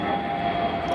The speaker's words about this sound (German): Und hier, man hört es im Hintergrund gerade, geht wieder ein Flieger Richtung Tegel runter.